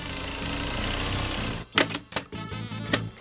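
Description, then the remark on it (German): A sewing machine, used by a dressmaker making made-to-measure dirndls and traditional costumes, runs in steady mechanical bursts, with a continuous whirring stitch followed by several sharp, clattering pulses as it stops and starts, fairly loud. “sitzt an der Nähmaschine.”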